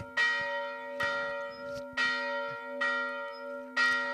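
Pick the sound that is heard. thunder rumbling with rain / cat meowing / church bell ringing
church bell ringing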